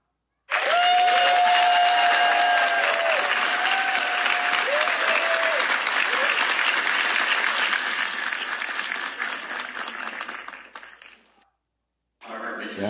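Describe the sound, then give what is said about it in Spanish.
Loud, sustained applause from an audience at Harvard Business School for a talk by Talia, a dense wash of many hands clapping for about ten seconds before fading out, with a few faint voices and tones mixed in. “como vieron, son los aplausos que tuvo la guapísima Talia en Harvard Business School.”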